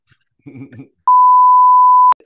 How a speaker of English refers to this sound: right bleeping that out.